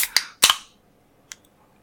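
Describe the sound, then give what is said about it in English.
A can of White Claw hard seltzer cracks open: a few sharp metallic snaps with a short burst of bright fizzing hiss, then a single faint click after a pause. No one speaks. “I got the official AH101 drink of level 160, which is a white claw.”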